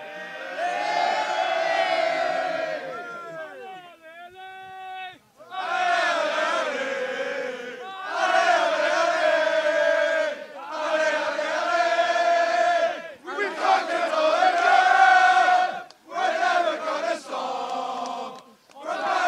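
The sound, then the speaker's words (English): A football crowd chants loudly in bursts, one man's booming voice bellowing out above the massed singing. The chanting repeats in rhythmic phrases with brief pauses between them. “fucking Foghorn Leghorn over there. He's louder than all of fucking yous.”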